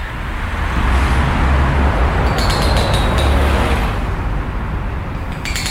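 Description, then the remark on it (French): A dense, steady rumble of street traffic and engines fills a noisy, overcrowded square at night, with bright little clinks of glass popping out in brief clusters over the noisy, crowded background. “Place bruyante et surpeuplée, rue aux échos imbibés d'alcool, rumeurs de voix et d'instruments, grésillements, moteurs, souffle, rire.”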